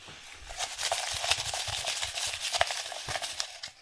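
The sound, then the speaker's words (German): Continuous rustling and crinkling of paper, with scattered small knocks and scrapes, as a hand digs deep through folded paper slips inside a dice cup and picks one slip. “hat jetzt richtig tief gegraben mit unserem Müffelbecher oh. und hat sich für ein Zettelchen entschieden.”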